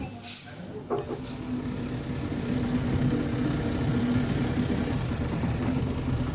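motorboat engine idling

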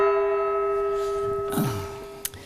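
gong strike

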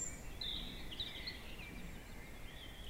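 spring

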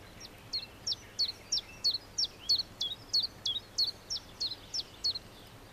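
common chiffchaff singing

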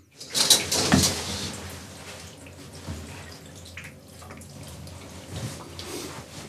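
shower water running

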